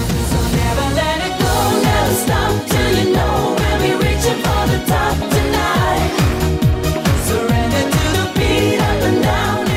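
An upbeat disco-style pop song from 2002 plays with a steady four-on-the-floor kick drum, bright hi-hats and layered synths, loud and continuous throughout, with no talking over it.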